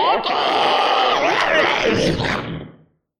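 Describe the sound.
A human voice imitates a creature's agonized scream as it bursts into green flames and burns: one loud, strained, drawn-out cry lasting nearly three seconds before trailing off into silence.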